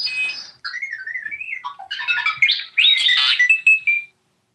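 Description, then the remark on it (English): A playful R2-D2 robotic droid phone alert tone: a quick run of warbling, chirping electronic beeps and whistles sliding up and down in pitch, bright and clear, lasting a few seconds with no talking. “sounds like R two wants you for something. Oh, that's R two D two.”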